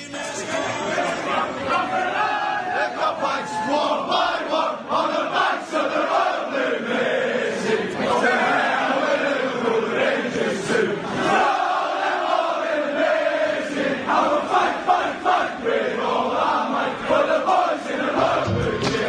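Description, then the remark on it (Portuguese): A crowd of football supporters sings a folk-style chant about sporting rivalry and three figures who raised Liverpool's standing, a loud, continuous mass of voices with rising and falling melodic lines and no pauses throughout. “E agora a gente vai ouvir né, um, um, um tema que mostra é, essa rivalidade esportiva, né, citando é, três personagens é, que fizeram o Liverpool subir de patamar.”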